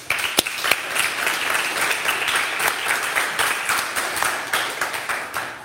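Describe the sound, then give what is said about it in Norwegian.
Steady applause from an audience as a guest is invited up to the stage, dense overlapping claps forming a continuous crackling wash at an even loudness, with a couple of sharper individual claps standing out near the start. “Gi henne en god klapp.”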